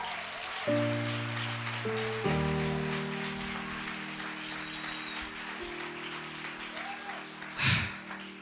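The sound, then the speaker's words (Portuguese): A church audience applauds the Lord in a steady, dense wash of clapping that lasts throughout, with sustained keyboard chords shifting underneath and a brief louder burst near the end. “Ah, irmão, aplauda o Senhor.”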